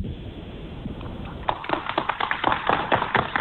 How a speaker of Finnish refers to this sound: Ja nämä aplodit tulevat siis Minna Kuukkalle ja Jukka Ormalle.